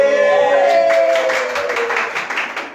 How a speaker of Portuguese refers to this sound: Adorei as palmas.